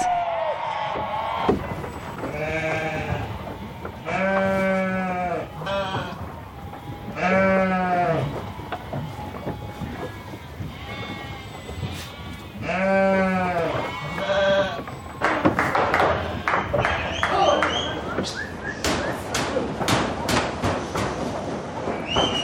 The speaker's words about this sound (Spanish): Tierra del Fuego es uno de los archipiélagos que se encuentran en el extremo sur de América. Ahí, en lo que algunos llaman el fin del mundo, se pastorea y trasquila a miles de ovejas.